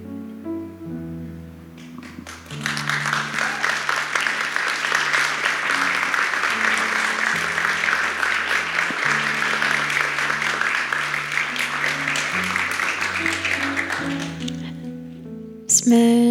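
A sustained burst of audience applause, dense and steady for over ten seconds, with soft harmonic music playing underneath before, during and after the clapping before it fades out.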